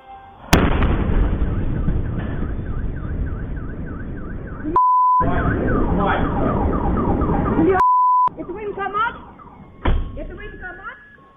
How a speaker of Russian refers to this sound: Итак, сегодня днем прогремел мощнейший взрыв на военном заводе в городе Сергеев Посад Московской области. Взрывная волна была такой силы, что от нее повлетали окна в зданиях за сотни метров.